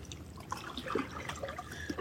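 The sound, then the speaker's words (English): Gentle water of Lake Superior laps and splashes against a rocky shore, a steady, soft wash with small irregular trickles and drips, fairly quiet, with no voices; the sun is shining, with high winds but calm water. “Greetings to you, coming to you from the shores of Kitchigami, this big inland sea, Lake Superior, and the beautiful lady is alive with sparkles today.”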